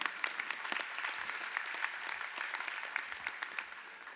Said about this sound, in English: Your failures, yeah, you can clap for that.